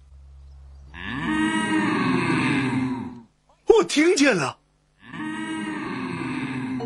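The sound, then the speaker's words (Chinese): Cows moo in the distance: two long, drawn-out, low lowing calls, each lasting a couple of seconds, with a short spoken remark from a person in between. “我们要快点找到那些牛，免得它们跑得更远。”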